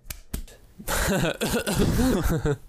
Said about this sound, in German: ich habe jetzt gerade auf die Brust geklatscht, aber okay, es klang wie Husten.